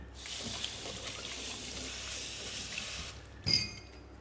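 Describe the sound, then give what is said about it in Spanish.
Water pours steadily into a cooking pot for about three seconds with a hissing, splashing rush, then stops and is followed by a short clunk, with no talking. “el agua va a hervir.”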